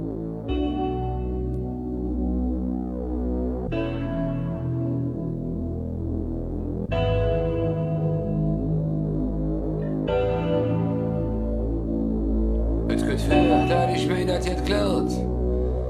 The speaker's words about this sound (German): Nach diesem Lied hier. Es stammt von der Gruppe … aus Köln und heißt schlicht ….